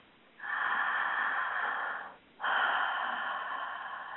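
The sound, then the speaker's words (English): Two long, slow breaths taken with eyes closed as a relaxing breathing exercise, a steady airy rush in and then out, with a short pause between them and no talking. “just close your eyes for a minute and take 3 breaths”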